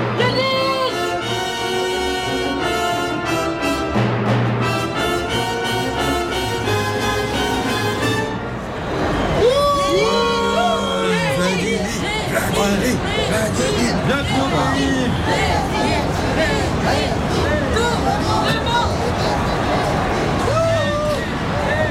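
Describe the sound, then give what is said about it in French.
A frenzied crowd at the Petrograd train station, welcoming Lenin's arrival on 16 April 1917, cheers and shouts without pause, many overlapping voices forming a loud, dense roar that holds steady for about twenty seconds. “À l'annonce de la Révolution de février, Lénine quitte son exil suisse et après un long voyage en train de 3200 km, Lénine arrive le 16 avril en gare de Pétrograd, accueilli par une foule en délire.”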